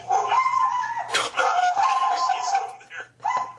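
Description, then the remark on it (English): Dogs bark and yelp in high-pitched, drawn-out bursts, fairly loud, almost continuously for a few seconds with a brief pause near the end. “Now I'll hit my mute while these dogs are listening. it wouldn't be a first show without some dogs.”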